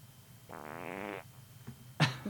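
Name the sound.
fart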